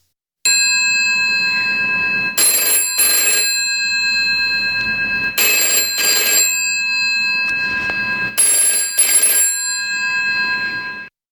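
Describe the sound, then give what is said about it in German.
The bell of a GPO 746 rotary telephone rings loudly in three repeated double bursts, each harsh metallic jangle separated by a short pause with a lingering tone. No one speaks. “Ja, der Klingelton ist zwar weniger drängelnd, dafür aber schmerzhafter.”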